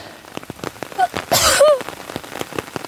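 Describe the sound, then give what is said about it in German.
Steady rain patters on a makeshift shelter roof at night, one corner held up by a hiking pole, scattered drops tapping irregularly, with a brief louder rushing burst midway and a couple of faint birdlike chirps. “Also ich glaube, wenn es nicht stärker regnet als jetzt, dann packt mein Unterstand die Nacht und ich bleibe trocken.”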